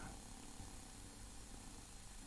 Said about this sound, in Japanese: これは沸騰しているのか。ボコボコ言い出しましたね。すごい近く音が入るね。素晴らしいね。ブーって言ってるのは、これはあの、沸騰している何かの音ですね。